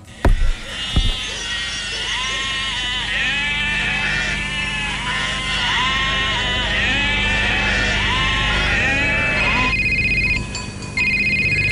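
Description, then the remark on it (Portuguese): A chorus of sheep and goats bleating in overlapping, wavering cries, steady, in a rural pastoral scene in Portugal with a shepherd, before a mobile phone ringtone abruptly cuts in near the end. “neste anúncio, há um pastor, ovelhas, há uma cena bucólica no Portugal rural e de repente um toque de telemóvel corta o ambiente.”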